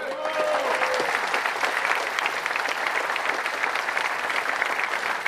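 An audience at a political speech claps steadily in approval of a call to limit private ownership of the means of production, a dense crackle of many hands that stays loud and even throughout, with a brief voice at the very start.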